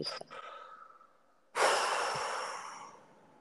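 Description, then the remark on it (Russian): A deep, audible breath, one of a few deeper breaths taken with sound: a softer, airy inhale lasting about a second and a half, then a louder, sighing exhale that slowly fades. “давайте вместе сделаем несколько, ну, 3-5, может быть, чуть более глубоких вдохов и выдохов со звуком.”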